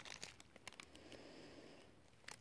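Crisp crinkling and rustling as a chocolate bar's light blue paper wrapper is opened and its aluminum foil and inner paper are unwrapped, with a series of sharp crackles scattered over a couple of seconds and no talking.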